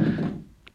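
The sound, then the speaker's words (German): A mobile phone drops with a single dull, muffled, low-pitched thunk, fading out quickly, followed by a faint small tick. “Das war mein Handy.”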